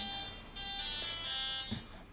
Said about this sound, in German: hat man das Klingeln gehört? War das deine Assistentin?